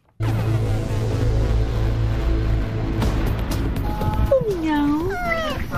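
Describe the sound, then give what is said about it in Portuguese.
Near the end, a cat lets out a couple of drawn-out, rising-and-falling meows, clear above a steady low rumble of background noise. “Pinhal, é, só é a terra dos gatos.”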